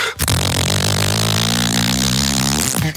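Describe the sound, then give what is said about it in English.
A person imitates a revving engine with their voice: one loud, sustained, buzzing growl held for about three seconds, with no other sounds around it. “That's drink beer and operate anything that goes”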